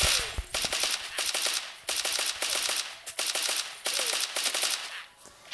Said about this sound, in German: Die Waffe ist zu OP. Da muss ich einmal auf den Bildschirm klicken und die schießt direkt dreimal drei Schüsse ab oder so.